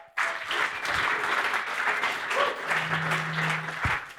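An audience claps steadily to welcome a guest, a dense wash of many hands applauding at an even level for several seconds, with a brief low hum toward the end.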